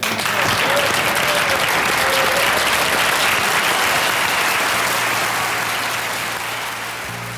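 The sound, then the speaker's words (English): A theatre audience bursts into sustained applause for a guest at the end of an interview on The Frost Tapes, dense steady clapping that holds strong for several seconds before gradually thinning and softening toward the end. “I just think that wherever you are, here in the theatre or at home, stand up with me and applaud this man.”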